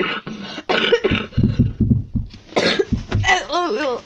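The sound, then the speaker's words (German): A series of loud coughs and throat-clearing bursts, broad and harsh, repeating irregularly for a few seconds, ending with a short strained vocal sound, from a person coughing upward, turned away from a microphone. “Dreh dich weg vom Mikrofon, wenn du hustest.”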